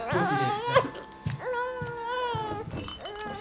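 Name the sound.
baby crying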